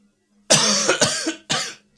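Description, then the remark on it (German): A harsh coughing fit: a long raspy burst of several hacking coughs, then a short pause and one more strained cough, loud and alone with no talking. “schon kommt so einer vorbei, macht nachts heimlich einen Exorzismus und dann fängt er das Husten an.”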